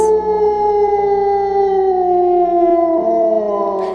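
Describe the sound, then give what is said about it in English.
A loud, sustained howl from a giant wolf, pinned down by a sword stabbed through its lower jaw and dripping blood, howling up into the stars, fills the whole moment: a single long tonal cry whose pitch sags slowly downward, unbroken, with no voices around it. “And this blood is dripping down, and they are howling into the stars.”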